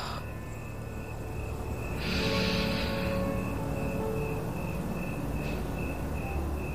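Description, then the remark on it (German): Crickets chirp steadily on a summer evening in a continuous, high-pitched trill, a dense layer of insect song with a brief brighter swell partway through, no voices present. “Und schau mal, was du sonst noch wahrnehmen kannst die Grillen zirpen noch.”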